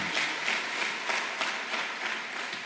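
An audience breaks into steady, sustained applause, a dense wash of many hands clapping at an even loudness for a few seconds with no voices standing out.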